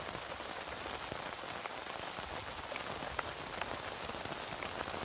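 Steady rain patters on a tent, a dense, even hiss of countless drops with occasional sharper individual splats, continuing without pause and with no voices.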